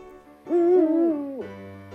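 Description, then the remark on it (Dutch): A person imitates an eagle-owl, giving one deep, drawn-out, loud hoot that rises slightly and then falls away, followed by a low steady hum. “Doe jij nog één keer de oehoene?”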